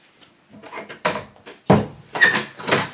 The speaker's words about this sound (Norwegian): Skal jeg lukke døren? Ja, gjør det, du.